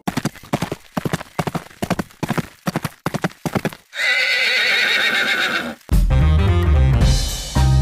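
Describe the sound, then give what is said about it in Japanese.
Horse hooves clip-clop in a steady, crisp rhythm for a few seconds, then a loud, drawn-out neigh rings out before music kicks in. “それでは馬が舞うスタートです”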